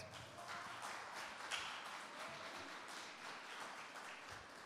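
A church audience applauding Jesus, a dense, steady wash of many hands clapping at once with no pauses, holding an even loudness throughout and no voices standing out.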